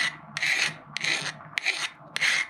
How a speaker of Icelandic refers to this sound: sjáðu hvernig fjölinn býtur í það sko en þetta er hald gerist ekki neitt ég er bara að skemma þjölina hérna sko.